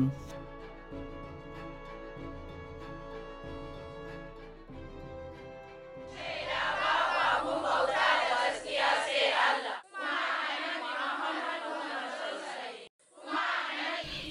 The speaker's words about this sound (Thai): บทสวดภาวนาดังขึ้นจากเด็กสาวกลุ่มใหญ่ พวกเธอคลุมผ้าสีทึบเหมือนเหมือนกัน บ้างนั่งบ้างยืน พื้นธงสีดำแบบอัลกอยดะโดดเด่นเป็นสง่าอยู่ด้านหลัง วิดีโอนี้ถ่ายทำจากผืนป่าแซมบิซาในรัฐบอโน ที่มั่นของกลุ่มโบโกฮาราม